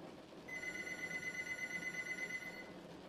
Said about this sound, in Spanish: El sonido del teléfono de la sala me hizo pegar un brinco del asiento.